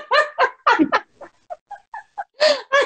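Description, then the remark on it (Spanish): A person mimics a turkey gobble with tongue vibrations: a rapid string of warbling, throaty syllables, loud at the start, softer and choppier in the middle, then two strong bursts at the end. “Reto para el 2021 el pavo, el pollo, vibraciones de la lengua a su pareja en zonas erógenas.”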